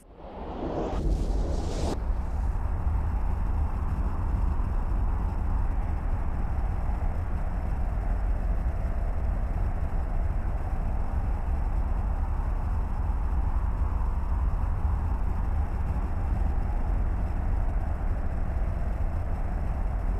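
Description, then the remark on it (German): A sci-fi warp drive engine effect: a brief rising whoosh gives way to a deep, steady engine rumble that holds loud and unbroken for about twenty seconds, with no voices. “Warp-Antrieb aktiv.”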